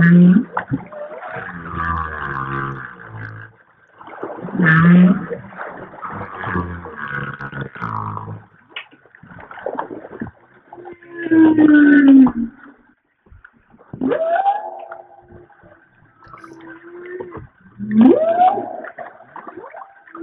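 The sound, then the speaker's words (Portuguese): Recorded humpback whale song, the whales communicating: a string of deep moans, rising whoops and grunting pulses, each call separated by short pauses, loud with a faint watery hiss underneath. “você trouxe uma outra outro material que é a vocalização delas, né? Gravada, né?”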